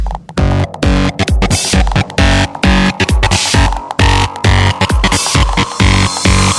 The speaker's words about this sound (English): some fat distortion.